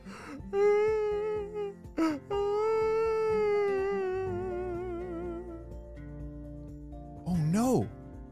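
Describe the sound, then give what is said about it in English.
A voice imitates a giant whale's mournful crying call: long, wavering, moaning wails that rise and fall, with one drawn-out cry in the middle and a short swooping cry at the end. “And they were so excited to see him, but then it made a sad sound.”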